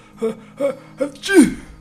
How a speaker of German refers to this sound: Sprach's und nieste mir mitten ins Gesicht.